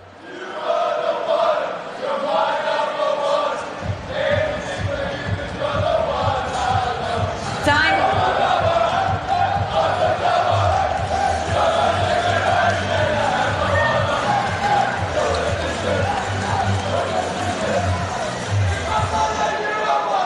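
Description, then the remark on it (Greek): A large crowd of spectators at a tennis match in Australia, many of them Greek, sings a pop song together in loud, continuous unison, with a steady rhythmic beat underneath and scattered cheers rising from the mass of voices. “Όμω, έναν αγώνα που έπαιζε, ε, θέλω να ακούσετε τι τραγουδούσαν οι θεατέ, γιατί η Αυστραλία και πολλού Έλληνε, όπω ξέρετε.”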